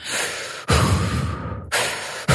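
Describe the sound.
A voice imitates the loud, heavy breathing of other people in a yin yoga class: several long, rushing breaths in and out follow one another in a steady rhythm, with no talking.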